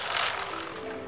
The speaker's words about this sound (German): Ich fahre auf dem Fahrrad und der Tag ist hell. Es geht bergab. Kühl durchstreift der Wind mein Gesicht.